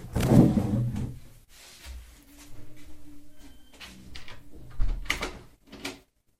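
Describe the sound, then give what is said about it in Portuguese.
A door is pulled shut: a loud initial clunk, some creaking and scraping movement, then a firm thud as it latches, with no one speaking. “desculpem-me fechar a porta que eu não aguento mais com ela.”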